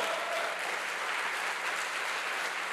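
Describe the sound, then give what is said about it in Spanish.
An audience applauds the Lord steadily, a dense wash of many hands clapping at once, sustained and even throughout with no voices standing out. “Dele fuerte ese aplauso al Señor.”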